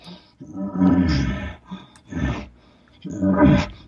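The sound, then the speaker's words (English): A man's voice imitates a bull's panting call: three heavy, raspy, grunting bursts in a steady rhythm, loud, with short gaps between them. “And once I start the bull in, like a bull shows up on the scene and starts raking, and then I go ahead and do some of the, you know, where he's panting, kind of.”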